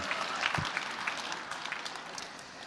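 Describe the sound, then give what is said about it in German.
An audience applauds steadily for Simpsons artist Bill Morrison at the start of a stage talk, a dense wash of many hands clapping at a moderate level, tapering slightly toward the end with no voices over it. “Einen heiteren Applaus für ihn.”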